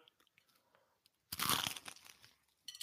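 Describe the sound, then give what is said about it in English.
A loud, crunchy bite into breakfast cereal pizza topped with cornflakes, a dense burst of crackling that fades into softer chewing, with a brief crinkly rustle at the end. “Wow, look at that crunch.”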